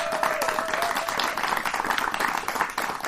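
Steady applause from a live audience as two guests walk in fills the whole stretch, dense overlapping claps at a constant level with a faint whistle-like tone early on, no voices standing out.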